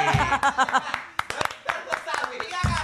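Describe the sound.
A short burst of sharp, uneven hand claps from a few people, mixed with speech and a bit of laughter, fading as talking resumes.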